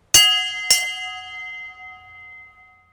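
A Sunday church bell strikes twice in quick succession, then its bright, layered tone hangs in the air and slowly fades. No voices, only the resonant ringing dying away.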